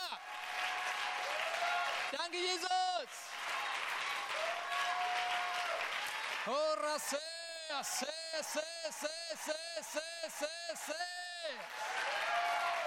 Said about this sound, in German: Wenn ich vor Gott die Hände erhebe und ihm einen Applaus gebe, verwirrt das den Feind. Lass uns mal Gott einen Applaus geben, damit der Feind verwirrt wird.